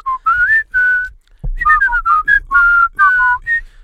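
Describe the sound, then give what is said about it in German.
Someone whistles a catchy earworm pop melody, bright wavering notes in short phrases separated by brief pauses, with a soft low thump partway through and no talking. “Ja und habe jedes Mal einen anderen Song gepfiffen, so einen klassischen Ohrwurm-Song.”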